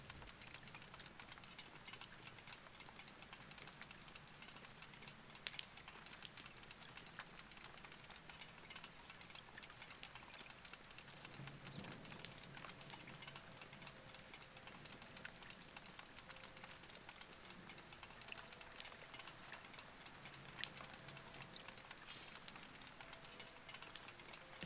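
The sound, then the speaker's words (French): Steady rain patters on a hard surface, a dense crackle of drops with occasional sharper ticks, fairly quiet and continuous throughout with no voices. “Il s'est mis à pleuvoir.”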